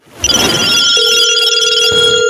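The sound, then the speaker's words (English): A telephone rings with a bright, steady electronic tone, sustained for about two seconds over a busy burst of noise, loud throughout with no one speaking. “Let's go ahead and get in the goddamn phone calls right now.”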